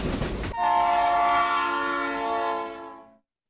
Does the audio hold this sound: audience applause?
no